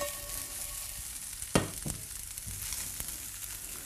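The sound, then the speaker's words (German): Food sizzles steadily in a hot pan with a constant crackling hiss, broken by a few sharp clanks and scrapes as the pan is tossed. No one speaks. “Es fehlt noch das Grünzeug. schwenken.”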